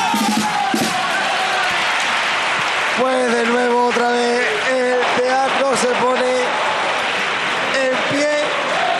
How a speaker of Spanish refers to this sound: Y aplaudan, y aplaudan, y aplaudan.